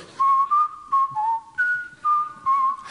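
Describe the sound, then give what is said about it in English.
Someone whistles a Christmas tune alone, a clear melody of short, bright notes that rise and dip in a steady, sing-song rhythm with brief breaths between phrases. “So my sister-in-law uh, asked me a few times, um, please stop whistling, and I just couldn't.”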